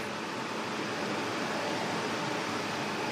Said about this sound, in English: Okay, so we're inside the data storage centre. What have we got in the different racks? There's a variety of machines of different ages, different size disks got all the wiring going up to the ceiling where there are a lot of fans.